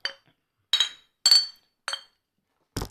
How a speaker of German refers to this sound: Prost. So, jetzt kommen wir nochmal nach darauf, darauf wird angestoßen.